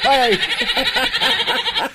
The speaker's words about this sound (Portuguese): Esse é o boi, é, é as cabras, os cabritos, tentei de tudo aqui.